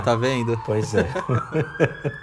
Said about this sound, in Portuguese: gente, desculpa o barulho da ambulância, tá? É, o bombeiro.